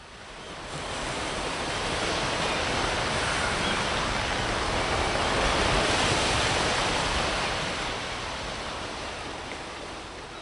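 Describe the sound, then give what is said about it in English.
Steady ocean surf washes in as a broad, continuous roar that swells slightly toward the middle and then eases off, with no voices present. “But you know what is today? The waves.”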